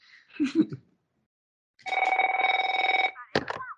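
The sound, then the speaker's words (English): A telephone rings once with a fast electronic trill lasting about a second, fairly loud, bracketed by brief voice-like sounds just before and right after; from South Park, as Cartman gets a phone call from Butters' parents. “uh, so cartman's phone calls when he gets the phone calls from butter's parents those are just amazing.”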